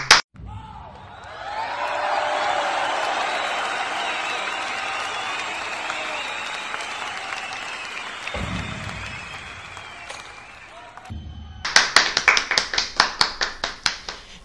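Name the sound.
applause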